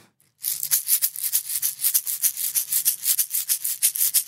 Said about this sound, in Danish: Hør, hvor det svinger. Det er et rytmeæg. Jeg ved faktisk ikke helt, om det svinger